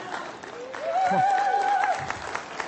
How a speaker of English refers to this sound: I just want to, yeah, you can, you can clap for him.